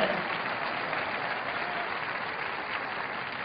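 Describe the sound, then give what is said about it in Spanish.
Steady, sustained applause from a large church audience clapping in praise of Christ, a dense wash of many hands clapping at an even level throughout, with no individual voices standing out. “Aplauda a Cristo y alabe a Cristo y adore a Cristo.”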